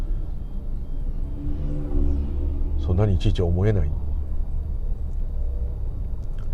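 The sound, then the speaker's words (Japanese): A steady, low engine rumble fills the inside of a moving car, continuous and even throughout, with a person speaking briefly over it in the middle. “今もこうやって車乗ってる間にいろんなことを踏んづけたりなんかやっつけて殺しちゃってると思うんですけど”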